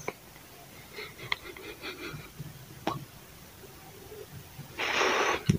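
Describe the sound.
A person makes a short, breathy hiss with their mouth, imitating a cobra. It comes near the end as one steady burst of about a second, after some quiet rustling and faint breaths.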